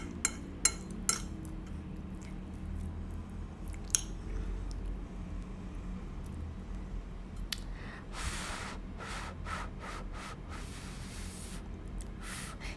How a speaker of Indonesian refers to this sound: benar, sumpit.